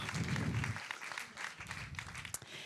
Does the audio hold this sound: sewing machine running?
no